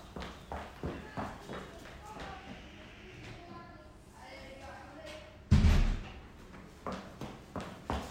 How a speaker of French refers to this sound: excusez-moi, je ferme la porte.